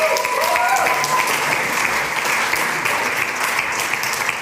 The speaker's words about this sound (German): Herzlichen Applaus.